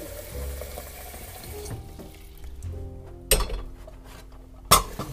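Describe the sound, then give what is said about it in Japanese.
Running water trickles steadily for the first couple of seconds while coffee is being made, then a quieter stretch is broken by two sharp, bright clinks of cups or ceramic being set down. “コーヒー入れながらもうちょい喋りましょうか”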